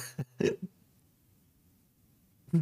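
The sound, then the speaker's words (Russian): A short, abrupt hiccup, a quick cluster of throaty bursts at the start, then near silence before another vocal noise starts at the very end. “Я же просто икнул.”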